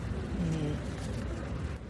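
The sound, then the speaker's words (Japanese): Steady background noise of a busy airport terminal in Singapore, recorded during a transit stop, a continuous low rumble with a faint rustling hiss on top, holding at an even level throughout. “えそんな感じでね空港で今、え録音してるのでちょっとこうガサガサ音が入ってるかと思います。”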